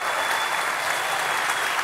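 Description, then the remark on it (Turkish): A theatre audience applauds steadily, a dense, even wash of many hands clapping at once that holds at the same strong level throughout, with no voices rising above it. “Ben ve kavuk uzun zamandır bu hasretle hasret kalmıştık bu alkışlara.”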